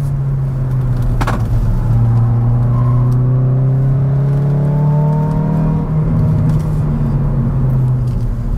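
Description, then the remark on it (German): A small Hyundai i20N hot hatch's engine drones loudly and steadily, its pitch rising through a rev before easing, with a low rumble and road noise throughout and no voices. “Der Hyundai i20N ist ein jugendliches Spaßgerät, in dem er vielleicht ein bisschen komisch ausschaut, wenn man älter ist als, sagen wir mal, 25 oder ja, okay, 35.”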